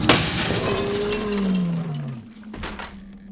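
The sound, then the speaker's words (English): Window glass shatters loudly, a sharp burst of breaking that trails into scattered tinkling fragments, with a low descending tone sliding beneath and a few clinks afterward. “He's carrying it to the window and.”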